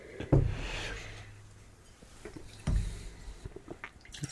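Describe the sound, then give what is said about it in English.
Water sloshes and swirls inside a glass being rinsed, with two soft knocks of the glass against something, fairly quiet, no voices. “All right, I need some more water. Rinse this puppy out.”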